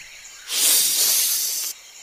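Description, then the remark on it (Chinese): A big python hisses once: a loud, airy, bright hiss that swells in quickly, holds steady for just over a second, then cuts off abruptly, with no talking over it. “我们得小心大蟒蛇”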